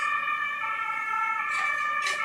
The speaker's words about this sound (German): einen Krankenwagen vorbeilassen, dann geht's weiter. Ah, da ist Notarzt. Der Notarzt, genau.